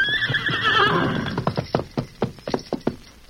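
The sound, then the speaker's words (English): A horse named Silver lets out a loud, shrill whinny that wavers and falls over about a second, followed by a run of uneven hoof clops as it shifts and steps while its cinches are tightened. “We tighten up cinches.”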